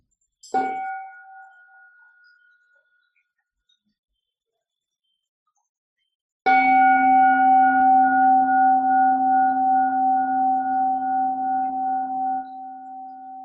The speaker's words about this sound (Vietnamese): Là dạ, xin sư cô thỉnh một tiếng chuông cho mọi người tiếp tục buông thư.